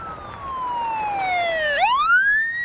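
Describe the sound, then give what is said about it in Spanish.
A police patrol car approaching at high speed, its siren wailing loudly, the tone gliding slowly downward before sweeping sharply back up, with no voices and only a faint road rumble underneath. “El coche patrulla se acerca a gran velocidad.”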